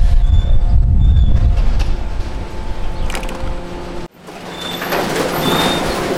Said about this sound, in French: Ici on est dans le domaine de, de de sac. Hein. C'est une machine qui nous permet de nous ouvrir on va dire 95% des sacs. Qui ensuite passe sur une, bande, comme vous pouvez voir là actuellement.